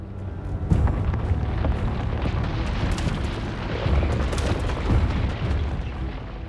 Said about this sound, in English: What he did hear, once the whispers faded, were trees bending and cracking up above, too high on the mountain to see.